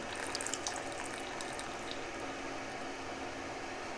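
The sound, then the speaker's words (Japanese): Spaghetti is lifted straight out of a pot and lightly drained without a colander, as water pours and splashes steadily back down, a continuous watery rush with a few light knocks near the start; no one speaks. “もうねやっつけですよざる でお湯切ったりとかもしないもうこの鍋から揚げてちょっと軽く水切ったらもうそのまま皿”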